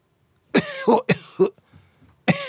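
A person deliberately coughs several times, short harsh bursts in two quick pairs, then a pause before one more cough. No talking in between.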